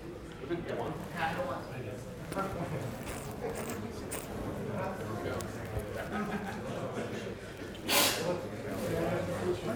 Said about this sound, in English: Bless you.